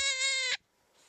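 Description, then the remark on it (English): A dying rabbit's distress cry: one loud, shrill, tonal scream held for about half a second, cutting off abruptly into near silence. “That's a dying rabbit.”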